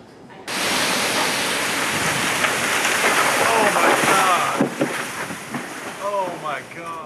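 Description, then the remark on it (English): Storm wind and heavy rain roar steadily, pushing trees around, then a tree in Mooresville snaps with a sharp crack near a home as the noise drops, and people exclaim in the background. “You can see the force of the wind pushing those trees around until one eventually broke.”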